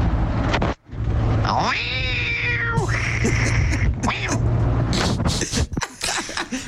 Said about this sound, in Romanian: Pare un mix făcut de pisici.